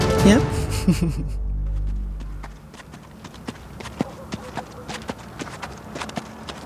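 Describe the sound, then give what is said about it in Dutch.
Sinterklaas's horse Americo walks through freshly fallen snow after the wind has died down, its hooves thudding in a steady, muffled plod, a run of soft, evenly spaced steps following a brief louder rumbling sound at the start. “Sinterklaas luisterde naar de doffe stappen van Americo.”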